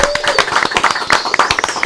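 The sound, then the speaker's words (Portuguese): A short burst of applause: several people clapping at once in a dense, uneven patter, fairly loud, lasting about two seconds with a faint whistle-like tone underneath. “Uma salva de palmas aí, galera!”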